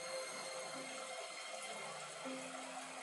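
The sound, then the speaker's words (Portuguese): Soft, steady rush of flowing water, continuous and fairly faint, like a gentle stream, with a faint tonal hum beneath it and no voices. “A forma como essa água corre”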